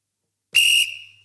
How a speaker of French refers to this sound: Bah si, c'est le carton de la semaine, petit jingle nouveau pour le carton de la semaine. Hein. Un petit coup de sifflet de l'arbitre, bah, euh, voilà, bien sec, bien rugueux là